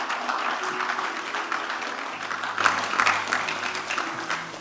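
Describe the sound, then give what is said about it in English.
A crowd claps steadily for several seconds as an offering to the Lord, a dense, rapid patter of many hands, with a low sustained tone humming underneath. “Give the Lord a mighty clap of offering.”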